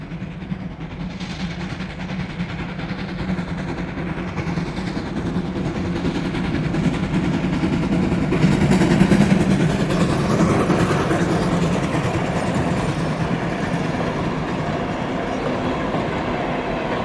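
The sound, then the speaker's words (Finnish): A train rolls along railway tracks with a steady, continuous rumble and rhythmic rattling, swelling slightly louder midway as it passes, with no voices present. “Onko tämä sulle mm. kovin tuttu ja rakas ääni? On joo, kato, tota, minun isä oli rautatiellä töissä.”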